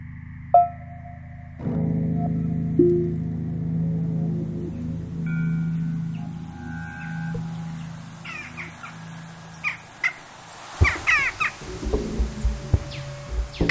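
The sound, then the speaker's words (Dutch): A low, steady drone hums throughout while a crow caws several times in the latter half, with harsh, clipped calls clustering toward the end. “kraai ben ik. Ik ben kraai.”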